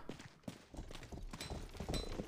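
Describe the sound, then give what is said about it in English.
Horse hooves in a video game clip-clop in a steady, quick rhythm of hollow knocks, set against a low continuous background hum with no talking. “Oh, somebody's mad at my horse for blocking traffic.”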